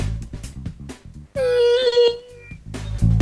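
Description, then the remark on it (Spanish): A person imitates a whale call, doing it with a Doppler effect: one loud, sustained, wavering moan lasting about a second, bracketed by brief bits of talking and laughter. “A ver, atención, la ballena.”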